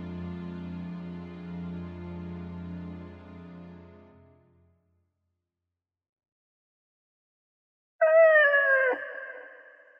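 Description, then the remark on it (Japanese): A wolf howls in long, sustained tones that fade out, followed by silence, then a second howl rises sharply and wavers before trailing off. No one speaks. “じゃあ誰なんだい狼だ。”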